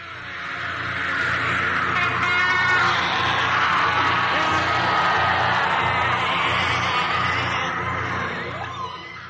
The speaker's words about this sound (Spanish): Precisamente eso. El grito de la Banshee.